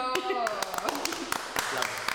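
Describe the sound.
A small group claps steadily in a quick, even rhythm, close and fairly loud, while voices and laughter carry on underneath.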